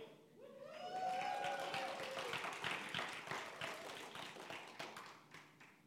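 An audience breaks into steady, dense applause that lasts several seconds, many hands clapping at once, with a brief vocal cry at the start before the clapping slowly thins.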